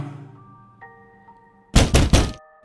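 Three loud, heavy knocks on a school toilet door land in quick succession after a quiet stretch with a faint steady tonal hum in the background.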